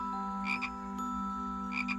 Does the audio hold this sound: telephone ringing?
no